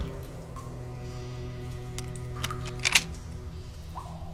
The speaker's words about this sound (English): Uh, you heard the sound, a very distingu- distinguished, distinguishable sound of a door unlocking.